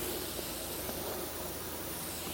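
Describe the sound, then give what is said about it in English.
A steady, soft fizzing hiss of a carbonated drink right after pouring, with fine crackling bubbles that continue evenly throughout, fairly quiet, with no talking. “And, yeah, pouring in mine now. Yeah, good fizz.”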